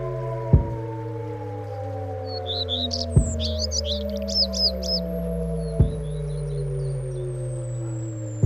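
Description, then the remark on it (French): Outdoors, birds chirp in quick bright bursts of song, mostly in the middle stretch, over a steady low hum with gliding tones and a few soft thumps spaced evenly apart. “parfois j'écoute les oiseaux de cette façon-là ici”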